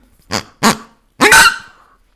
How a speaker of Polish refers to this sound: Była to świnia. Świnia jest z plastiku.